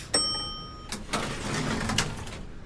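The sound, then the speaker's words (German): A bright chime rings once, then an elevator door slides open with a soft, steady mechanical whoosh lasting a couple of seconds, moderately quiet. “Die Tür geht auf.”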